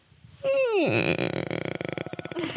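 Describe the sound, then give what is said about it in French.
A voice imitates a creaking sound: a drawn-out tone slides sharply downward, then breaks into a rough, rattling, evenly pulsed creak lasting about two seconds. “Tu fais bien le grincement.”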